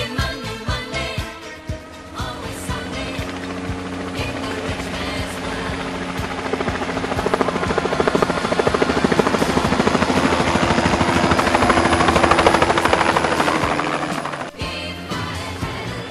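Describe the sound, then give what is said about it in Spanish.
A helicopter passes low overhead, its steady rotor thrum and engine whine growing louder to a peak before cutting away abruptly near the end. No one speaks. “tengo miedo de que un sniper lo baje, ¿viste?”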